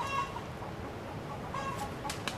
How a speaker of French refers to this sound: Bon les poules là